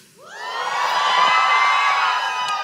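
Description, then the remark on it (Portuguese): The girls' side of an audience erupts in loud, sustained cheering when called on for a boys-versus-girls balloon competition on stage, high-pitched screams and whoops rising quickly and holding steady for a couple of seconds, sounding like many young voices shrieking together. “Cadê a torcida das girls aí?”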